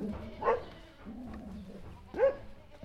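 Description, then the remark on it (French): Border collie herding dogs bark twice as goats are let out, two short, sharp yelps spaced well apart, over a low murmuring background. “Les chiens, ils ont compris.”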